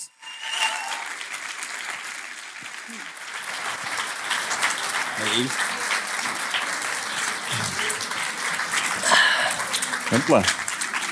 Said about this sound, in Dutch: Geef hen een geweldig applaus.